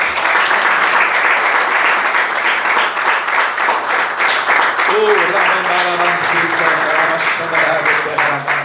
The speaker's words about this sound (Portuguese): E as palmas louvem ao Senhor Jesus.